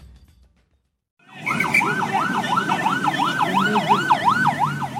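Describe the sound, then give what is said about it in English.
After a moment of near silence, a loud, wailing ambulance siren rises and falls in rapid, repeated sweeps over a steady rumble of street traffic in Peshawar, northwestern Pakistan, as injured people are rushed to hospital after a suicide bombing at a mosque. “Ambulances filled the streets of Peshawar in northwestern Pakistan as dozens of injured people were rushed to hospital after a suicide bombing at a crowded mosque.”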